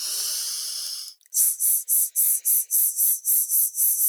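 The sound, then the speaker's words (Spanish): A breathy shushing hiss done as a vocal warm-up: one long sustained "shhh" followed after a brief pause by about ten quick, evenly spaced "sh" bursts, made alone with no talking. “como si le estuviera diciendo a las personas que están sentadas en el cine haciendo ruido y eso me va ayudando a que, a que entre aire y, los músculos se activen”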